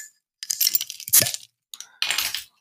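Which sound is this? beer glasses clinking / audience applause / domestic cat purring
beer glasses clinking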